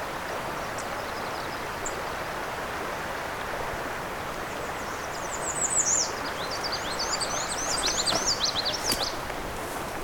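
A black-and-white warbler sings a thin, high, squeaky series of repeated two-note phrases over a steady rush of flowing water, with no voices.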